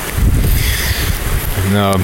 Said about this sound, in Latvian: Nu, droši vien skaļāk par to čalo upīti. Kalnu upīti, kas smeļās savu spēku no sniega.